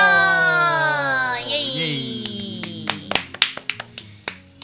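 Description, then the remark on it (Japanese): Meat sizzling on a yakiniku grill: after a fading tonal hum, sharp crackles and pops burst irregularly over a steady hiss, growing busier toward the end. “前回から引き続き焼肉を頂戴しております聞こえますでしょうかな お肉の焼ける美味しそうな音 ASMR でございますが”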